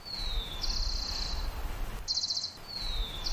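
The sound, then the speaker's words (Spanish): A small rufous-collared sparrow with grey and brown feathers and a crest chirps thin, high whistled notes, sliding downward into short buzzy trills, repeated a few times against a faint low outdoor rumble, as it hurries across shaking its feathers, small tail and crest. “se sorprende al ver un pájaro copetón que se atraviesa afanado, sacudiendo sus plumas grises y café, su pequeña cola y su copete.”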